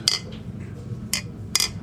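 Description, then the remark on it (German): Glasses clink together in a toast: three bright, ringing taps spaced unevenly over a low background rumble, the first and last strongest. “trotzdem. Prost.”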